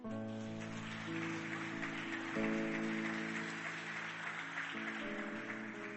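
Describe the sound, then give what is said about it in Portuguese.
Steady applause from an audience during a sermon, a dense rain-like patter of clapping, blends with sustained musical chords that shift every second or two. No voices stand out. “Dá um aplauso, fique de pé.”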